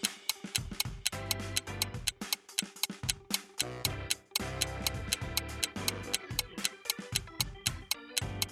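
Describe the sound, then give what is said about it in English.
A quiz-round countdown clock with 10 seconds on it ticks steadily and quickly, each crisp tick evenly spaced over a tense tonal music bed, fairly loud with no voices. “10 seconds are on the clock.”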